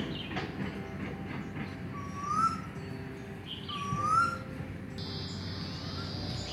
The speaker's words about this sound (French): on entend le bruit des, oiseaux